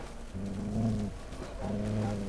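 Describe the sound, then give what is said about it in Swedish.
A low, rumbling growl from Pastrell, an animal growling warily in the dark in a wet area and refusing to go forward, sustained and rising in two long drawn-out bursts with a brief pause between them, with no talking. “Och eh, kommer ut i ett eh, lite blöt område och eh, Pastrell han eh, han, eh, han morrar avvaktande och vill inte alls gå framåt.”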